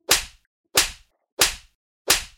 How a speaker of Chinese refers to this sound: 扇耳光疼不疼啊？疼，疼就对了。